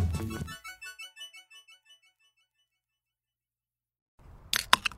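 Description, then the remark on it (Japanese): A can of Ichiban Shibori beer is cracked open: a sharp metallic click and a short bright hiss of escaping gas near the end, after a chiming tone fades into silence. No one speaks. “あこれははい CM みたいなプシュって綺麗な音がしたけど今日はですね一番絞りさんの提供でやっております 提供されてねえよ自費だよ自費”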